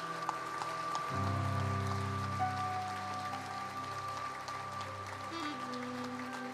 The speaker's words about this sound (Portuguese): Posso ouvir um amém? Posso ouvir um aleluia? Você pode dar uma salva de palmas para Jesus, querido?